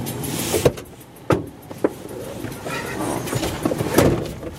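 Someone climbs into a car: a few sharp thumps and clunks of the door and seat shifting over a low interior rumble and rustling, with no talking.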